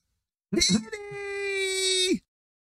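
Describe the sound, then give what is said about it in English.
A cat lets out one long, eerie yowl that starts with a rough, broken burst, then holds a steady, high-pitched wail for nearly two seconds before cutting off. “It is a kitty, a spooky kitty.”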